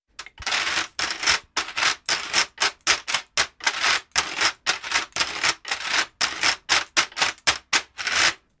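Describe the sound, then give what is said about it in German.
An old washboard is scraped as a musical instrument in a quick, steady rhythm, a run of bright, rasping strokes, about two or three per second, fairly loud, with no voices. “Aber auf alten Wäschbrettern und Wäsch zu spielen, das ist doch eher exotisch.”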